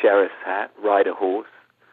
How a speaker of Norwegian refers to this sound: På en litt skurrete telefonlinje fra England snakker jeg med Andrew Lincoln, aka sheriff Rick Grimes i zombieserien